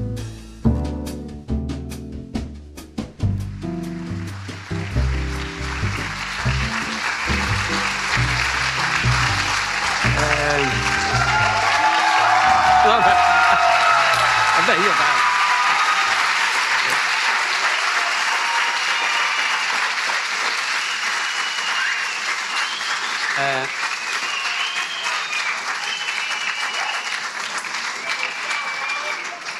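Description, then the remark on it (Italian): A large audience at a festival lecture in 2022 applauds loudly and steadily for half a minute, with sharp whistles rising above the clapping midway through. A voice speaks briefly at the start as the applause builds. “Ecco, chi fischia immagino che sia perché ha capito che non posso fermarmi a fare il firmacopie dopo la lezione.”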